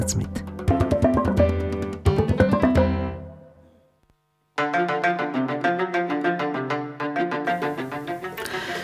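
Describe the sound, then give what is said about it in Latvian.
Instrumental band music from a band's newest album, with quick, bright repeated notes in a steady rhythm, fairly loud. It breaks off into a short silence, then resumes with the same busy pattern. No voices. “Mūzika, kas skan fonā, būs arī balva nākamā konkursa uzvarētājiem.”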